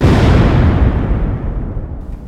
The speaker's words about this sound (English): Always the explosions.